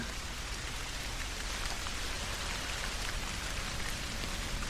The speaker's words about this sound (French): La Terre est ainsi arrosée pendant des millions d'années de pluies chaudes et acides.